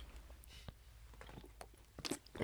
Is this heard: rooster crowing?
no